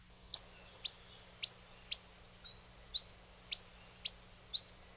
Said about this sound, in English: It has become very hard to hear the song of the akikiki lately, but their more simple call can still occasionally be heard.